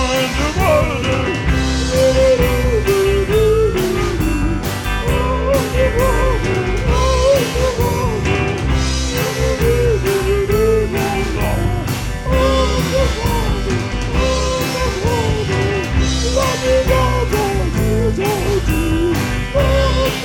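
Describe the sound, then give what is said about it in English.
A smooth pop song, a 2008 hit, plays steadily and loudly throughout, with a full band, a regular drum beat and a melodic sung line floating over warm chords. “You've been listening to the smooth sounds of the … 2008 hit, …, right here on the Cephalopodcast”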